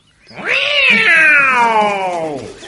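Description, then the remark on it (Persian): A single loud, drawn-out angry cat yowl, rising sharply then sagging slowly in pitch over about two seconds before cutting off, with nothing else around it; the cat is angry at seeing a rabbit run away. “گربه وقتی فرار خرگوش رو دید عصبانی شد”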